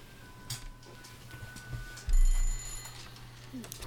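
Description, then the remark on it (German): A telephone bell on a minibar rings briefly in the middle, its bright metallic tone sitting over a low thump, with scattered clicks and a faint room hum around it. “Geil, Minibar, ey, mit dem Telefon drauf.”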